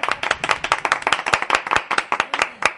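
A group of people clap steadily, the sharp handclaps overlapping in a quick, irregular patter that stays fairly loud and even throughout, with no voices heard.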